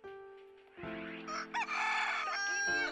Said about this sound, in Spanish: ¡Ay, un gallo! ¡Vecino! ¡Ya calla ese animal!